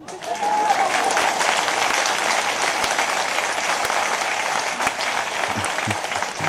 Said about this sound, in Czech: Mně se líbí, mně se líbí, jak jsem pustil ten jakoby divoký potlesk